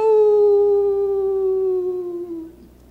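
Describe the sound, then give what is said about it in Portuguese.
A single long, drawn-out howl imitated by a human voice, loud, sliding slowly downward in pitch for about two and a half seconds before fading out. “E ele para do lado da bomba e de repente ele escuta o cachorro uivando.”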